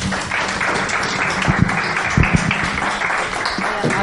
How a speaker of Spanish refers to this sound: Eh, agradecemos la participación y le damos una, un fuerte aplauso de bienvenida.